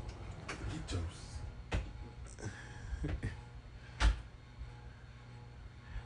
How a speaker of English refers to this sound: um slight that door so just in case Queen come through here? Huh? Oh. oh. So close the door. Close the door.